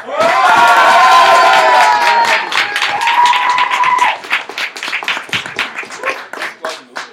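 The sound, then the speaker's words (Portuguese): A crowd cheers and applauds loudly to vote for the historical figure Cândido, with high whoops over dense clapping that thins out after a few seconds into scattered, uneven claps fading away. “Aí, se vocês acham que a figura histórica do Cândido foi a mais legal aos olhos de vocês, podem fazer barulho.”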